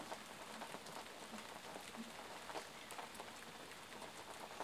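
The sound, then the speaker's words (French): Steady rain falls outside an open window, with a light draught of air coming in, a soft, even patter with scattered sharper drops tapping surfaces. Gentle and continuous, with no voices. “fenêtre ouverte, ce léger courant d'air qui vient accompagner le son de cette pluie”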